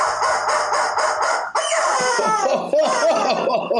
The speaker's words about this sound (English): And the rubber chicken says.